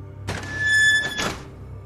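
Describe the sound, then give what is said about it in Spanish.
A small rusty metal door of a cold storage chamber holding bodies creaks open with a clunk, then a steady, high-pitched squeal lasting about a second, ending in another dull knock. No voices. “Con temor la abrí un poco y un chirrido oxidado se escuchó.”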